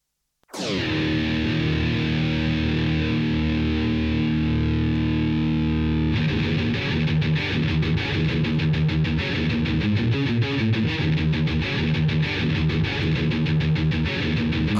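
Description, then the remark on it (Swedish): A heavily distorted Bay Area thrash metal guitar riff, loud and alone: a big ringing chord sustains for several seconds, then breaks into fast, tightly chugging rhythmic picking. “coolt eh, thrash-riff. Bay Area thrash-riff.”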